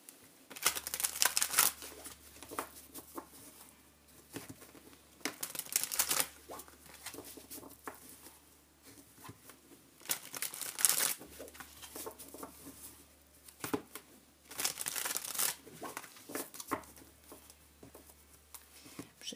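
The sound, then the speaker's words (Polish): Tarot cards shuffled by hand for a tarot reading: four bursts of rapid papery fluttering, with softer rustles and small clicks between them. No one speaks. “I teraz przytasuję karty, e, wyciągnę 7 z nich i jeszcze jedną kartę, wskazówkę z talii Anielskie Klucze.”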